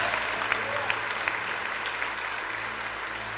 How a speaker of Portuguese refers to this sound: Quem está comigo, diga amém, pode aplaudir o Senhor.